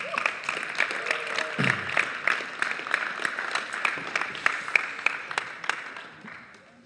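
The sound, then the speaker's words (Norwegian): An audience bursts into sustained applause, a dense crackle of many hands clapping at a steady level for several seconds before tapering off near the end, welcoming two speakers who are coming up to tell about a team's trip to Cuba. “Ta dem imot med en applaus.”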